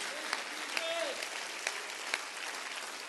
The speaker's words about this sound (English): I think that Savior needs a hand clap of appreciation today.